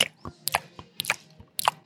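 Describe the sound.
A voice mimics loud, wet open-mouthed chewing, with smacking, clicky bursts repeating in an uneven rhythm of about three chomps, alone without any speech.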